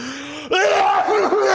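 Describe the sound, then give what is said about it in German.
A voice imitates an exaggerated, comedian-style overdone sneeze: a rising, drawn-out vocal intake followed by a sudden loud, noisy burst held for about a second. “Also wenn man den Nieser zu groß macht, also wirklich Komiker.”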